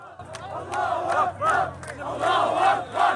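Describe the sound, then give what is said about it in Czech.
A large crowd in the West Bank cheers and chants to welcome 39 women and minors released early from Israeli prisons during a ceasefire, many voices shouting together in loud, surging, rhythmic bursts that rise and fall over a steady low rumble. “Na západním břehu Davy uvítali 39 žen a mladistvých vězněných v Izraeli za podíl na teroristických útocích a teď v rámci příměří předčasně propuštěných.”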